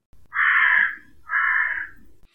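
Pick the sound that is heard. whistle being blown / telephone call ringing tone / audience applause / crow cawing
crow cawing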